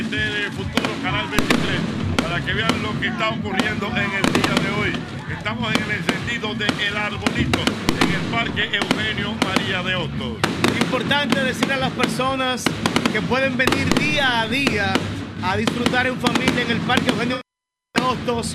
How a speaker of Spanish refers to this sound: Bueno, ustedes están oyendo los fuegos artificiales, una gran festividad que tenemos en el día de hoy